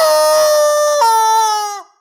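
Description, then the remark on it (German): A rubber chicken toy lets out one long, loud, nasal squawk, nearly two seconds, its pitch jumping upward midway before the squeal abruptly cuts off. No one talks over it. “und ich habe mir vor einigen Jahren einen epischen Kampf mit einem solchen Huhn an der Fasnacht geliefert.”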